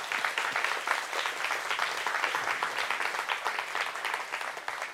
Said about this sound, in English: Can we just clap for them real quick for all the things that they do?